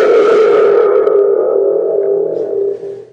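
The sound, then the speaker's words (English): A toy thunder tube made in St. Louis gives its spring rumble: a loud, reverberant, metallic roar that starts with a burst, then hums and slowly fades over about three seconds, with no voices. “it's my thunder tube.”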